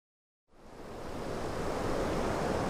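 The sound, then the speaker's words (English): A steady, blustery rush of wind on a wet, windy morning in Roscommon, Ireland, fades in after a moment of silence and holds as a loud, unbroken roar, with no voices present. “On a wet and windy morning, I travel to Roscommon to meet another farmer”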